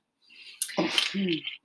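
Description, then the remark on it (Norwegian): Metallic clattering and clinking as a microphone stand that had slipped down is handled and fastened back in place, with a sharp knock near the start and a brief murmured voice over the rattling. “Mikrofonstativet hans satt ned, så hvis det blir noe bråk, så er det bare det.”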